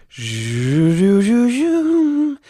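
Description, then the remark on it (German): A single voice hums a short, made-up psychology jingle, a continuous melody that climbs stepwise from a low note to a higher sustained tone, fairly loud, lasting about two seconds with no talking. “Ich müsste jetzt noch so eine Psychologie-Melodie haben.”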